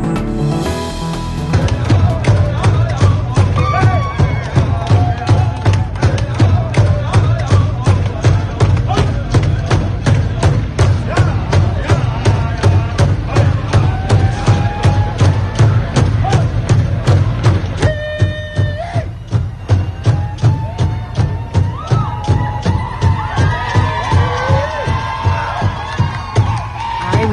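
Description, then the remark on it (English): A large crowd of climate policy and indigenous peoples protesters cheers and shouts on a street and sidewalks in Washington, loud and continuous, with a steady rhythmic pounding like drums or clapping running through it and voices whooping over the din. “the sound of cheers, that was climate protesters in Washington just a few days ago, climate policy protesters, indigenous peoples protesters on sidewalks, uh, doing sit ins, and trying to break into a federal facility.”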